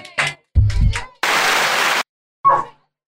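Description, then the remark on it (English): A short, loud burst of audience applause, harsh and hissy, lasting under a second, set between brief bits of voice and a low thump. “Thank you for your applause.”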